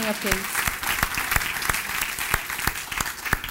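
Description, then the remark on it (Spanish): An audience claps steadily, a dense wash of hands with sharper individual claps popping out at a regular rhythm, fairly loud, applauding Jesus as the King of Kings. “Él ese fuerte aplauso al Rey de Reyes”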